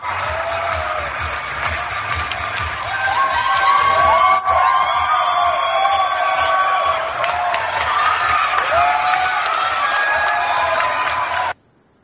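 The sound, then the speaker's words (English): A large crowd cheers loudly and steadily for about eleven seconds, a dense wash of shouts, whoops and high-pitched yells before it cuts off abruptly. “There's a lot of cheering.”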